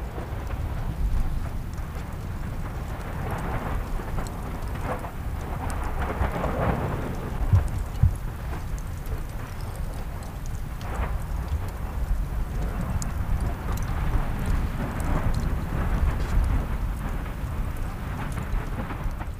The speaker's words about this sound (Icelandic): skemmtilegast er á upptökunum finnst mér þegar maður heyrir allt þetta en heyrir svo líka í fjarska drönurnar í gíknum